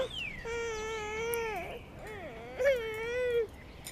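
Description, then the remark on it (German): A small boy, held up in his mother's arms, screams and wails after losing the twig he was waving, in two long, high-pitched bursts, the first drawn out and wavering, the second rising sharply before trailing off into a sobbing cry. “Der Junge verliert seinen Zweig. Geschrei.”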